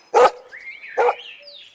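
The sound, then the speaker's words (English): Timmy the dog gives two sharp, loud barks about a second apart at a picnic on top of Kirrin Hill, with a faint whine-like tone lingering between and after them. No one speaks. “Timmy the dog barked and laid his big head on George's knee, and she patted him.”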